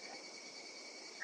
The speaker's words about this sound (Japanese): えっと今せセミの声聞こえますかこれ。